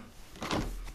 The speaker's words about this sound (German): Mach mal das Fenster auf hier.